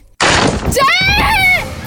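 A sudden loud crash or burst is followed by a woman's high, wavering scream that rises and falls for over a second, close and intense.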